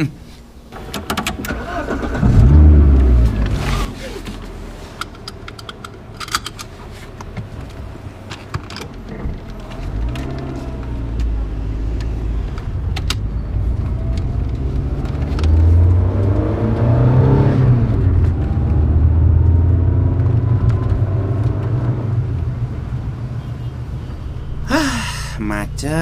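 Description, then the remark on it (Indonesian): A car engine rumbles in a stop-and-go traffic jam, idling low and then revving up in a couple of rising surges, with a brief burst of other noise near the end. “macet macet”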